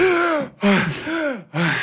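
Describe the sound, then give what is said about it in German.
Three loud gasping breaths in quick succession, each a voiced heave with a rising-then-falling tone, separated by brief silent pauses, as a person breathes again after holding their breath while a cloud thins. “so am, am, am Durchatmen und am Husten und, und was nicht alles.”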